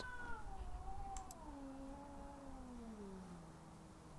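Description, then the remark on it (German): Tapsi, a small black tomcat with white paws, lets out one long, drawn-out meow that slowly falls in pitch, fairly loud, with no voices around it. “Katzen. Richtig. Da gab es ja auch noch Tapsi. Das kleine schwarze Katerchen mit den weißen Pfötchen.”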